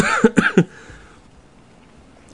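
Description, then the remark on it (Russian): A quick burst of three harsh coughs in a row from the speaker, fairly loud, followed by quiet background and a faint click at the end. “Что-то тут у вас тут такое, все кашляют. И я тут приехал к вам, тоже начал кашлять.”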